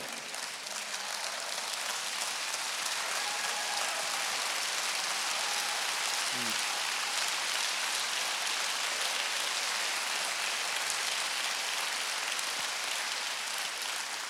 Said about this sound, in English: The reformers are clapping.